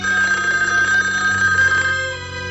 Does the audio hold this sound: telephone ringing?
yes